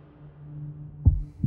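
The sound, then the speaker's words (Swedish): A deep, muffled heartbeat thumps twice, low, over a faint steady hum in an otherwise quiet background. “Var det bara jag, eller kunde man höra mina hjärtslag?”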